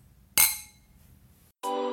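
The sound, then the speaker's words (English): A single bright clink of glasses, as in a toast, rings out clear and fades over about a second. Then a steady tonal hum begins. “thanks so much for following with us, and um, cheers.”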